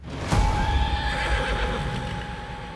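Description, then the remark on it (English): A horse whinnies with a long, sustained neigh over a steady low rumble and clatter of hooves as a carriage flies off the road and crashes into a tree, loud, with no voices present. “the strange carriage flew off the road in a tumble of wood and horse hooves and crashed into a tree.”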